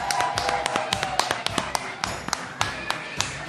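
A burst of audience applause: many sharp, irregular claps overlapping at a steady, moderate level for a few seconds, with a faint murmur of voices underneath.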